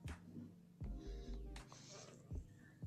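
A kitten meows and yowls in a few short, strained cries, faint, mixed with low thumps and a soft background hum.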